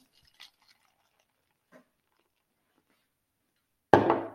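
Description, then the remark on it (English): Cups knock together in a victory toast: a couple of soft, faint taps are followed by a loud clink and clatter at the end, with no talking. “A little victory toast for the boys.”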